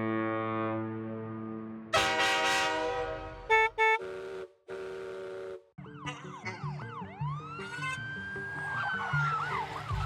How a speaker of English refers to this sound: So, while we can, let's get our clowns out of the tent, honking the horns, and getting ready for episode 137.